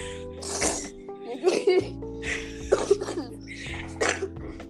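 A sick person coughs repeatedly, about four harsh, throaty bouts spaced roughly a second apart, with a steady low hum underneath.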